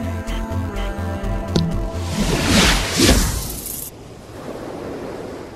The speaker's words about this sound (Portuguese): apetece mergulhar neste mar calmo, azul translúcido que se estende à minha frente.